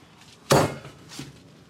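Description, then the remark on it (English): A single wet, heavy slap as a raw meat patty, smooshed into a ball, is thrown down onto parchment paper, fairly loud, followed by a soft, faint rustle a moment later. “Slap that potty. Slop. Onto the parchment.”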